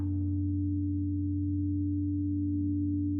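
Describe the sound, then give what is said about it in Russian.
A deep gong rings out, its brighter overtones fading quickly while a low, steady hum sustains for several seconds. There is no talking, just the resonant tone hanging in the air. “Возможно, эти уровни будут меняться вместе с новым звуком – или ударом гонга, который вы слышите и пропускаете через тело.”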